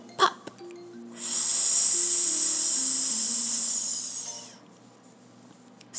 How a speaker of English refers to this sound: Let's do one balloon breath to make sure our balloons are nice and full and ready to float. Breathing in, hands on your belly. And let out a little air.